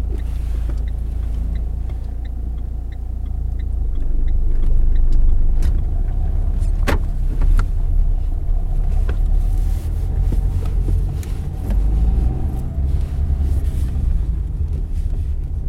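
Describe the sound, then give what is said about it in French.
Steady low engine rumble and road noise heard from the back seat of a moving driving-school car during a driving lesson, continuous and fairly loud, with faint regular ticking near the start and a sharp click partway through; no one speaks. “Et cette fois-ci, ben, j'ai repris la place que j'avais quand j'étais une petite fille, à l'arrière, pendant ces leçons.”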